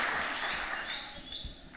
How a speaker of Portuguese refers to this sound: Salve de palmas